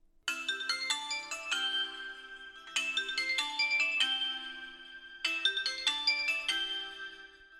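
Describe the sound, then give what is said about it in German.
A melodic phone ringtone plays three times in a row, each burst a quick run of bright chiming notes followed by a brief pause, loud with no voices, before a phone call. “Liebe Zuhörer, es folgt ein Telefonat, das wir völlig frei erfunden haben, welches wir aber sehr gerne als realen Mitschnitt gehört hätten.”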